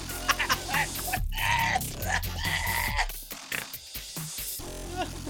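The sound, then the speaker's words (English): A duck quacks loudly, a rapid run of nasal, buzzy calls repeating one after another over a cluttered, noisy background. “Quack, quack, quack, quack.”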